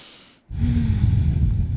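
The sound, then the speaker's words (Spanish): A deep breath drawn in with a soft, airy hiss, a brief pause, then a long, heavy, forceful exhale, taken as a normal relaxing breath before rhythmic breathing, with no talking. “Así que antes de hacer la respiración rítmica, hagan una respiración profunda. Esa, esa, y saquen todo ese oxígeno.”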